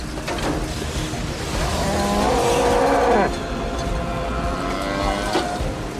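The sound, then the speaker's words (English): A cow lets out one drawn-out, wavering moo lasting about two seconds, nearly drowned by a constant roaring rush of tornado wind that fills the whole recording. “Another cow.”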